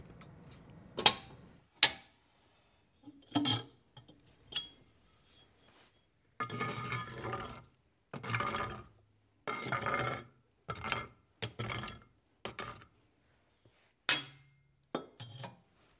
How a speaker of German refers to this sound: Sie macht ein Feuer.